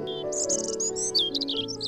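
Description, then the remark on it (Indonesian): Several birds chirp and tweet in quick, overlapping bursts at a moderate level, layered over a steady low droning tone throughout. “Mereka juga berubah menjadi burung dengan bulu berwarna-warni.”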